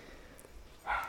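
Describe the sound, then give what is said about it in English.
A single short dog bark pops up near the end, moderately loud, over a quiet background with no talking. “Sorry about the dog.”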